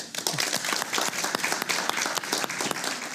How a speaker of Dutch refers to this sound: Graag een warm applaus.